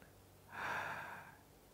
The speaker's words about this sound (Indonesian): Coba deh, tarik nafas, tahan sebentar, kemudian keluarkan. Tarik nafas lagi, tahan sebentar, keluarkan.